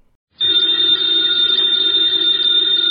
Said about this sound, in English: Ladies and gentlemen, the ringing of that phone bell means mystery, adventure.